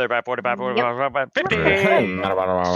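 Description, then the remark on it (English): A voice imitates an auctioneer's rapid chant, rattling off quick clipped syllables before sliding into a continuous warbling run, fairly loud, with no other sounds around it. “auctioneer sounds. He's like rambling.”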